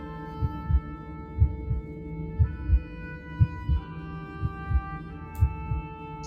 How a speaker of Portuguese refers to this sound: Ao entrar ali, você já vê essas veias esverdeadas, sendo que você escuta algo diferente. Como se fosse um coração batendo.